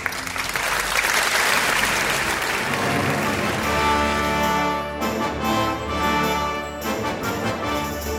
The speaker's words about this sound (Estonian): daamid ja härrad, Eesti Kontserdi saade. aplaus